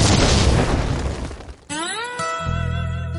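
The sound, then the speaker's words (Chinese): A loud explosion sound effect: a dense, roaring blast that rumbles and fades over about a second and a half, then gives way to bright synthetic tones and a low, steady buzz. “下面马上进入到今天的生活大爆炸环节， 瞬间爆炸。”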